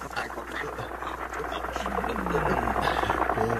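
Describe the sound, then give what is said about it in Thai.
A steady, dense rumble of Joseph and Judah's chariot approaching, growing slightly louder over a few seconds, with faint voices murmuring underneath. “นั่นเสียงรถมาของโยเซฟกับยูดาใช่ไหมนะใช่แล้วครับพ่อ”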